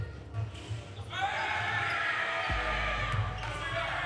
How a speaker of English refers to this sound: can hear the camaraderie. There's some good scrimmaging going on in the background.